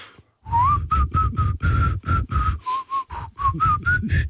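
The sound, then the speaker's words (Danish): Someone whistles a short, halting tune, a string of separate notes with airy breath between them, rising in pitch toward the end. “Jeg er pisse dårlig til at fløjte.”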